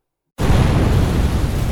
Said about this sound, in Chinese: 剧烈的爆炸声伴随着强大的冲击波和地震，从地下传了出来。